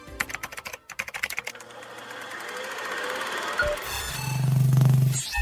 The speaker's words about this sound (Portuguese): estou de volta logo depois da vinheta.